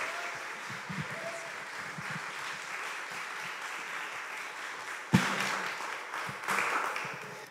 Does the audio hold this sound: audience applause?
yes